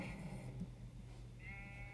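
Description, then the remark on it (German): A video game sheep bleats in short, nasal cries, one near the start and another toward the end, moderately loud over a steady low hum, as the player shoots sheep around in the game. “Ich bin einfach so ein Schafkiller.”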